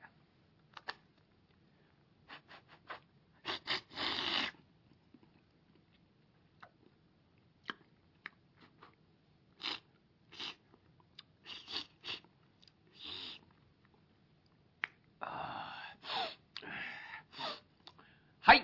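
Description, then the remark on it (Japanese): A performer mimics slurping noodles with the mouth, using a folding fan as a prop, producing short airy sucking bursts and a few longer wet slurps, interspersed with small clicks and taps, with no speech. “あの、その、扇子を使って、ズルズルってやった。”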